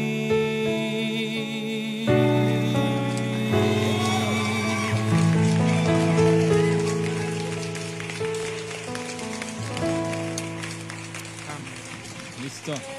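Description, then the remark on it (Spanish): The audience present claps steadily for the Lord, a dense crackling applause that swells after a few seconds and runs beneath sustained, loud keyboard-like chords and some voices throughout. “Ese aplauso más fuerte. más fuerte ese aplauso, público presente.”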